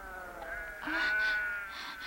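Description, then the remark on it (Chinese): A flock of sheep bleat in a wavering chorus at a well where they are to drink water, several overlapping calls swelling louder in the middle before trailing off, with no one speaking. “让这些女孩子们羊群先喝水，因为是她们先到的。”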